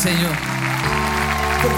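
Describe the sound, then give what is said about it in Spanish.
An audience claps steadily in a dense, continuous patter as praise to God, mixed with sustained musical tones and a voice speaking over it, all fairly loud throughout. “Con nuestro aplauso le mostramos cuánto lo amamos.”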